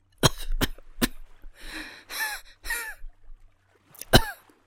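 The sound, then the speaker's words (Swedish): Someone who has swum to shore and pulled themselves up onto a stony beach coughs up water: three quick harsh coughs, then raspy, choking splutters and strained breaths, ending in one loud final cough. “Jag drar mig upp på den steniga stranden och hostar upp vatten.”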